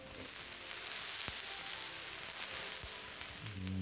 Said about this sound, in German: Wir haben jetzt Silvester und ihr hört im Hintergrund Raclette. Einmal ASMR.